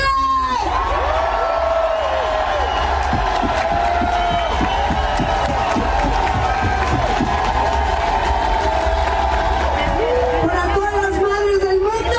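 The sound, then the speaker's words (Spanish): A large crowd at a Pride festival concert in Long Beach, California, cheers and applauds loudly and continuously, with whoops and shouts rising from the mass of voices, filling the whole stretch with dense, roaring noise. “Un fuerte aplauso a mi madre.”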